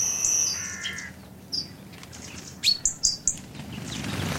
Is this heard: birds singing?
yes